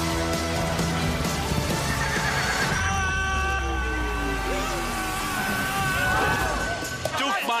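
A horse whinnies loudly and repeatedly over steady hoof clip-clops, with a busy, full background of movement and noise throughout.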